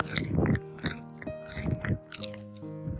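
Crunchy chewing of peanuts, with several crisp bites and grinding bursts at an uneven pace. A faint steady hum runs underneath.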